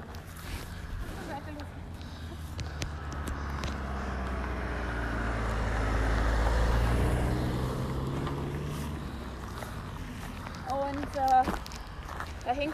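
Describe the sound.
A car approaches from behind, its rumble swelling steadily until it passes at the midpoint, then fading away. Footsteps continue throughout, and a brief voice comes in near the end.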